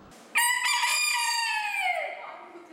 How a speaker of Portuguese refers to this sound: Esse galo simpático é o Paçoca.